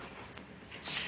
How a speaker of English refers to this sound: But yeah, if you hear some frying noises in the background, yeah, I'm cooking.